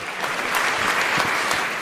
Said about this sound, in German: Auch nochmal kurz Applaus für unsere beiden Volontäre, die hier das alles den ganzen Tag mitbegleiten.